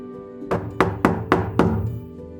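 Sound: knocking on a door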